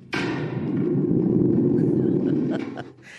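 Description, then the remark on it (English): A thunder gourd, kept at a cabin as an alarm system, gives off a deep, reverberating rumble that swells quickly and holds steady for about three seconds before fading, loud, like rolling thunder or a low growl. “It's called a thunder gourd.”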